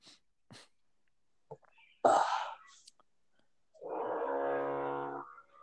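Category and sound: tool, power drill drilling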